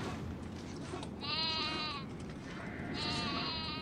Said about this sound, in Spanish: ¡Cabras!